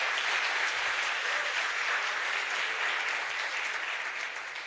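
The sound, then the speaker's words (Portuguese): An audience at a church service breaks into sustained, dense applause for the Lord, many hands clapping at once in a steady roar that holds level throughout, with no voices standing out above it. “Dê um aplauso ao Senhor bem forte aí.”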